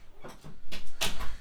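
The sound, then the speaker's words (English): A door is pushed shut, with a soft scraping swing followed by a louder, sharp thud and latch click, then a brief rattle as it settles. “Let me just close the door real quick.”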